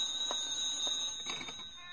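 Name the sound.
telephone ringing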